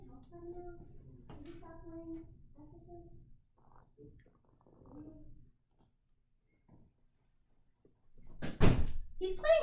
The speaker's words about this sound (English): I just want to see. Can we hear the door?